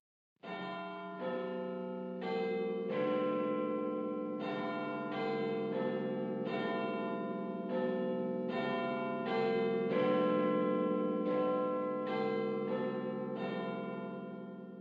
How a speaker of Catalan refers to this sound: Per exemple, a mi m'agrada molt les de les campanes del Big Ben.